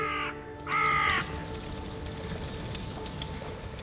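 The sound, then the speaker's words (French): Two loud, harsh crow caws ring out in quick succession, the second one longer. A steady low hum of background noise continues after them, with no one speaking. “Amis, comprends-tu le vol noir des corbeaux sur nos plaines”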